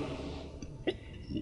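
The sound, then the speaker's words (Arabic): A single short sneeze bursts out midway through an otherwise quiet stretch, slightly muffled, with faint background noise before and after and no talking. “رحمك الله”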